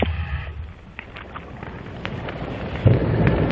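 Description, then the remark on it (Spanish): Whale sounds picked up underwater by hydrophones: a murky, rumbling wash of noise with brief tonal calls near the start, then scattered clicks and a swelling low roar toward the end. “introducen allí, eh, digamos, esos, esas, especies de audífonos para captar el sonido de las ballenas.”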